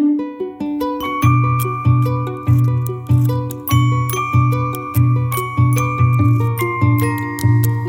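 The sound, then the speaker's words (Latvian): The tower clock bell of the town of Straupe rings out in steady, closely spaced strikes, each ringing tone overlapping the next. The pealing is loud, with no voices. “Šī diena droši vien paliks straupes iedzīvotāju atmiņā kā diena, kad atkal atskanēja pilsētas torņa pulksteņa zvans.”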